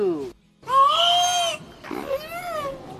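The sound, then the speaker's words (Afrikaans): Orca calls: a short descending squeal, a brief gap, then two long, bright, harmonic wails that bend upward and waver, loud, with no talking. “Ja, dit is hoe dit klink as 'n orka praat.”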